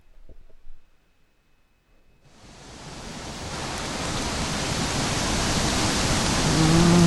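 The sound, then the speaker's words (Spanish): After a couple of quiet seconds with a faint low thump, heavy rain swells in as a dense, steady hiss that keeps building louder until the end. “Más fuerte, más fuerte la lluvia.”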